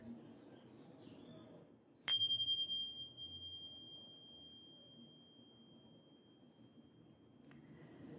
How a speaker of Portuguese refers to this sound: e no seu tempo, ao toque do sino, eu te convido a abrir os olhos finalizando assim essa prática.